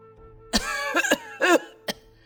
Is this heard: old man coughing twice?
yes